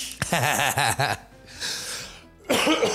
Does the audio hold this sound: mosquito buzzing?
no